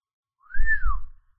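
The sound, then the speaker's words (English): A man gives one clear whistle that glides up and then slides back down, an impressed-sounding swoop lasting under a second, with a soft low rumble beneath it, as he gets out of a vehicle. “Ned whistled as he debarked.”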